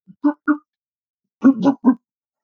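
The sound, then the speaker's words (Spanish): A voice imitates a gargling laugh as an example of a 'pez burleta' laugh: two short voiced bursts, a brief pause, then a quicker run of three louder, throaty bursts. “No, no, esto lo estoy haciendo yo como ejemplo de risa de pez burleta.”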